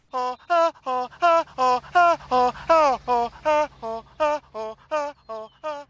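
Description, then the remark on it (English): A comical cheating alarm, the Trollnad's cheating alarm, blares in a rapid, steady string of about fifteen loud, nasal honking blasts, each short and buzzy with a warbling, voice-like tone, prominent with no talking over it. “That's the Trollnad's cheating alarm going off.”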